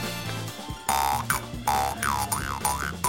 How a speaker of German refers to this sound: Und es war natürlich vielen sofort klar, dass es hier um eine Maultrommel handelt. Genau. Aber eine ganz spezielle Maultrommel.